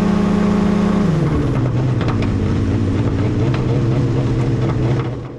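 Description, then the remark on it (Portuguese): A loud airplane engine drones steadily in flight, then drops in pitch and runs roughly with uneven sputtering bursts before dying away at the very end as the engine stops working mid-flight, after liquid thought to be gasoline was seen leaking from the plane. “No momento que ele viu, pouco tempo depois, o, o, o motor faz.”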